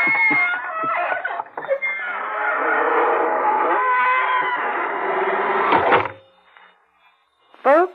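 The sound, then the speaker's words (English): A door creaks shut in a long, loud, wavering squeal that lasts several seconds and shifts in pitch, then falls quiet before one brief final squeak. “here we are outside the squeaking door.”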